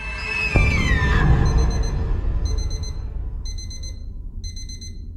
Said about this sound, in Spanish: Después recuerdo que sonó el despertador, mi mamá también ya fue,